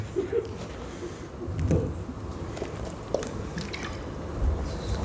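Water is poured for drinking, a soft, steady trickling and splashing with a few small drips and squishy liquid sounds over several seconds. No one speaks.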